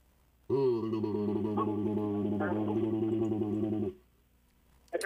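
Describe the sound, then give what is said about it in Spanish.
A voice imitates a caller's garbled, distorted phone-call audio with a single warbling, buzzy drone lasting about three seconds. It sounds tinny and bubbly, as if heard underwater like a submarine, loud, then stops abruptly. “Uy, como que no, no, no, no, no pagó su teléfono o me está hablando desde el agua como un submarino.”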